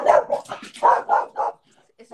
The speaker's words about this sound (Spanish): mi perro cabreado. No le ha gustado, no le ha gustado lo de... Las enmiendas ha dicho, no, ven aquí, ven.